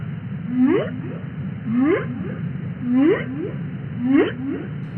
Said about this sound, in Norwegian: Hvalen synger, fisken prater. For dem er det viktig å kunne lage og høre lyd i havet, for å orientere seg, for å finne mat og for å tiltrekke seg damene.